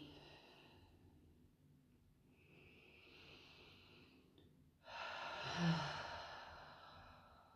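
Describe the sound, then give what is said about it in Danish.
A slow, deep breath drawn in with a soft airy hiss, then let out in a louder, fuller sigh-like exhale. No one speaks. “Lad os tage en dyb vejrtrækning sammen.”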